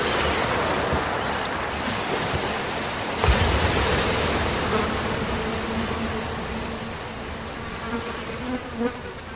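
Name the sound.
sea waves and wind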